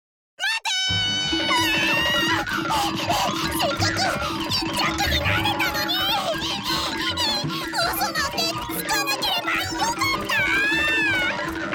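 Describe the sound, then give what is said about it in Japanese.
Cats meow and yowl loudly in a frantic, continuous fight, wavering cries overlapping with high squeaks for about eleven seconds over a steady low background. “こうして猫とネズミは大喧嘩猫はネズミを追いかけ始めます”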